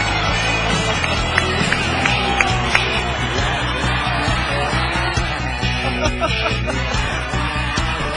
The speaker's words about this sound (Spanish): Fuerte los aplausos para todos ustedes.